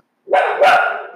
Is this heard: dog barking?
yes